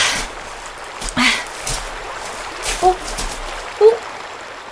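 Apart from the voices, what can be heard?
flowing stream water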